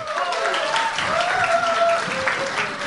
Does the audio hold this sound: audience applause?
yes